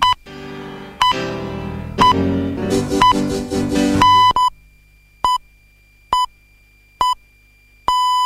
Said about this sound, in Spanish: Este sonido alerta que ha comenzado una nueva hora.